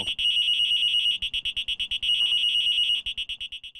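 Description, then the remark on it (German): The alarm of a cash-transport case, which sounds when its cable is pulled out: a loud, shrill electronic beeping, rapid and insistent, alternating between long steady tones and fast pulsing bursts, with no voices present. “Wenn du in die Filiale reingehst und es würde jetzt ein Bankräuber kommen, mhm und er würde dir das Kabel hier rausziehen, dann gibt es sofort diesen Piepton, der mhm. geht genau eine Minute und dann explodiert dieses Gerät.”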